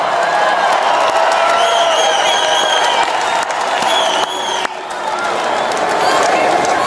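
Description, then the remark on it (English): A large rally crowd of thousands in Phoenix, Arizona cheers loudly and steadily, with shouts and whoops rising out of a dense wash of applause and voices that holds nearly constant for about seven seconds. “You know, I'd love if the cameras could show this crowd because it is rather incredible.”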